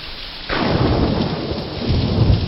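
A thunderstorm roars with heavy rain and wind that make a window shake; after a brief quieter start, a loud rumble of thunder surges in and keeps growling low beneath the steady downpour. No one speaks.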